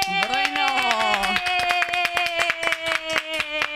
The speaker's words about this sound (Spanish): siguen siendo dos aplausos.